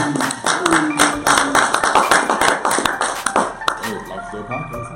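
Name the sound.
hand clapping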